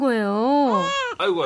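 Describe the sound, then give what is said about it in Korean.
A baby wails loudly in one sustained, rising and falling cry, pausing briefly for a breath before the crying resumes; the baby is throwing a fit because it does not want to ride in the car. “아이고 우리 애기가 아주 우렁차게 우네.”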